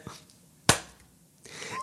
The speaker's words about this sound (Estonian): tegin, ma tegin plaksu. see oli lae, oota ma teen ühe veel